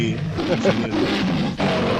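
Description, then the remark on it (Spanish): A big cat roars loudly, a rough, sustained growl running for about two seconds with a brief break near the end, mixed with other game-like sounds. “salió otro, felino.”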